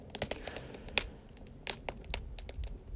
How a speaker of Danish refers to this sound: Der er virkelig gang i bålet bagved.